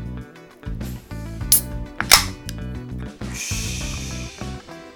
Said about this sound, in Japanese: じゃあねそんな一番搾りを飲んだんで今度はねプレミアムの方ついでね飲んでみますじゃあねこちらもね缶開けていきますね